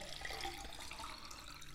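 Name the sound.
water poured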